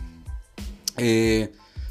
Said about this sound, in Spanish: Ay, me estoy echando un agua mineral bien sabrosa.